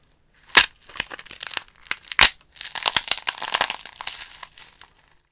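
A Komodo dragon eggshell cracking as the baby hatches: two sharp, bright snaps a couple of seconds apart, followed by a longer run of dry, crinkly crackling that gradually fades. No voices are heard.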